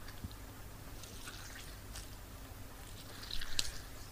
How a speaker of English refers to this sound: Next, uh, I've got an orange that I've just halved and I'm squeezing in.